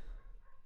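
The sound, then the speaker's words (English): Faint dogs barking, a brief muffled burst of yips and woofs with no one talking over it. “Sorry about the dogs in the background.”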